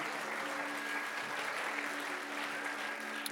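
A large crowd claps steadily for a few seconds, applause given for Jesus during a sermon, a dense, even wash of applause that neither builds nor fades, with no one speaking over it.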